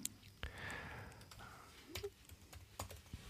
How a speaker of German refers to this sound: Jetzt müsste ich nur noch tippen können.